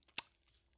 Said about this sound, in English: If you hear crunching in the background of this podcast. It's my dog eating his kibble.